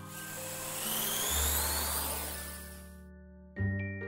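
A vaccine delivery drone buzzes steadily with a layered motor hum and a high whine that climbs in pitch. The high whine cuts out near the end, then a brief louder surge of buzzing follows, with no talking.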